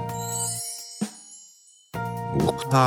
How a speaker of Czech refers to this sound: Ne, to nebylo ono. To byla znělka.